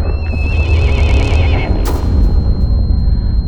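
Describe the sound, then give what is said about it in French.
A horse ridden by a jockey during a race gives one loud, quavering whinny that trembles for over a second, set against a dense, rumbling wash of noise, followed by a sharp thud. “Le jockey horrifié fait de son mieux pour éviter de la frapper, mais il est trop tard.”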